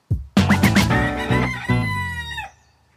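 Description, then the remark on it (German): A rooster lets out one loud crow lasting about two seconds, its harmonic call stretching and then breaking off, with a few short clucks from chickens right at the start. No one speaks. “Wie ist es denn jetzt, mit den Hühnern zu leben?”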